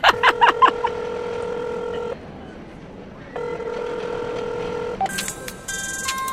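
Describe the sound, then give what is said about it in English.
A quick burst of phone keypad beeps, then two long steady ringback tones with a pause between them, followed by bright electronic chirps as the call connects. No one speaks. “um, answer your phone.”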